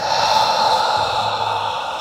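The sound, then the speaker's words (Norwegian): A long, steady breath out during a guided breathing exercise, airy and hissing, sustained for about two seconds with no talking. “Og på utpust kan du slippe tak i den.”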